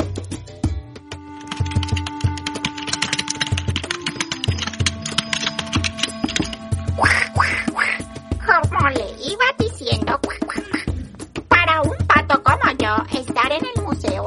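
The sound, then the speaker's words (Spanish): A voice imitates a duck, letting out bursts of nasal, squawky quacks in quick, chattering runs over a busy background of clicking taps and steady tones. “Ay, ay, ay, pero qué pena contigo, señor Pato.”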